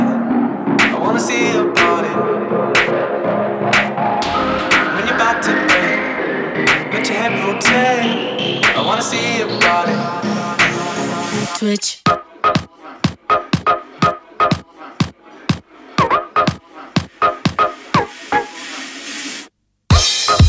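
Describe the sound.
An electronic dance track opens with a dense, loud build-up and a long rising sweep, then breaks into a steady, punchy four-on-the-floor beat with sharp regular hits.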